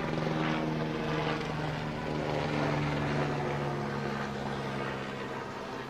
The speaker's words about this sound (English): Even the helicopters want to listen in.